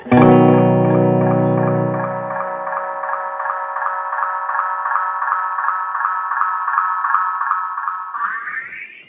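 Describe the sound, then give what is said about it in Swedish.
A buzzy electronic tone feeds back through a tape-style echo that loses some bandwidth on each repeat, its lows thinning away so the sound narrows as it repeats and sustains, before the pitch sweeps upward at the end. “Lite mer som ett bandeko ja, tappar exakt. för varje ja, ja, precis. studs.”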